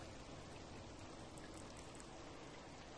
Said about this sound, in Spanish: Lluvia. Cae la lluvia presurosa en mi ventana y con ella él vuelve a mí.